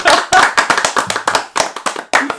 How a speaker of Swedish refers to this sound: Nej, nej, nej. Vi, en applåd, en applåd